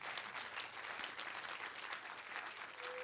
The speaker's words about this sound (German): Lasst uns Jesus mal einen Applaus geben, unserem Gott, dem alles möglich ist.